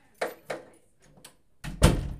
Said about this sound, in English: Can you close the door, see, please?